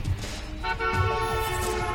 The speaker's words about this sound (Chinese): 一声鸣笛，汽车让远方不再遥远。